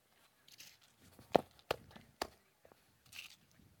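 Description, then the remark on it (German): Three firm stomps on a crumpled banknote land at uneven intervals, each a sharp thud with a faint papery crunch, surrounded by soft rustling and shuffling; otherwise quiet. “Wenn ich da jetzt rum stampfe.”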